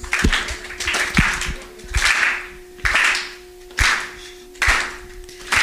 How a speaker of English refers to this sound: So I just want you all to clap your hands as we make a joyful noise unto the Lord. So just clap your hands.